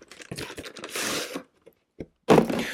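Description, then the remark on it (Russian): Someone opens a parcel containing a razor from AliExpress: quick crinkling and clicking rustles, a sustained tearing scrape, a short pause with a couple of taps, then a loud final rip of packaging. “Перейдем к открытию, к открытию э, по, по, по посылке.”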